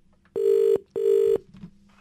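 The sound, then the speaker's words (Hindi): Two steady ringback tones from an outgoing phone call to a woman who had sent a message, each about a second long with a short pause between, loud and clear over faint background noise. “बहुत सारे मैसेजेस आए उसमें से मैंने इन मैडम को फोन लगाया एक्चुअली लगाया यूं क्योंकि इनका मैसेज मेरे को समझ में नहीं आया”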